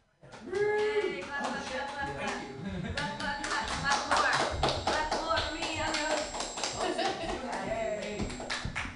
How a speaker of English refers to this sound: Hey, everybody, clap it up for yourselves.